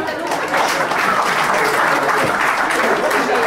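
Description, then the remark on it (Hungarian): An audience breaks into steady applause for a young man in the audience, a dense wash of many hands clapping at an even, fairly loud level throughout, with no single voice standing out. “Ő monogám, tapsoljuk meg”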